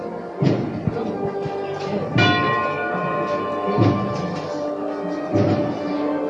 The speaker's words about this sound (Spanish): Qué ambiente con el sonido de esta campana aunque se cuelen los, sones de la banda de, música por detrás